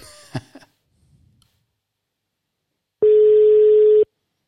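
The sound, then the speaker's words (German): A short burst of noise opens, then after a quiet pause a single loud, steady telephone ringback tone from a late outgoing call sounds for about a second before cutting off. “Hörst du es klingeln? Ja, ich höre es auf jeden Fall klingeln.”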